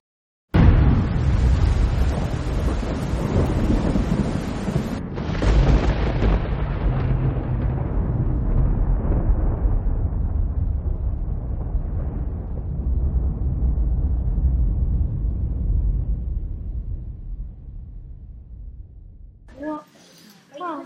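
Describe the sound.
A deep, powerful thunder crack outside bursts in suddenly, then rolls and rumbles loudly for many seconds before slowly fading; a second surge hits around five seconds in, and a voice starts speaking near the end.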